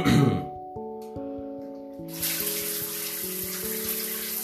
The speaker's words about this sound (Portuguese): Aí sim, já vamos começando ligando o chuveiro aqui.